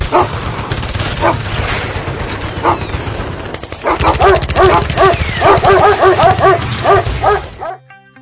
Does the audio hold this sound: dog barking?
yes